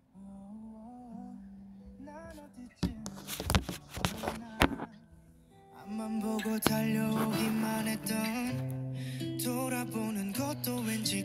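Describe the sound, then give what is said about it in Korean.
A K-pop song with a male vocalist singing softly over sparse accompaniment, then fuller instrumentation swells in halfway through, growing louder and steadier. “어 일단 여기서 한번 이제 또 케이팝 하나 가야죠 Let's go.”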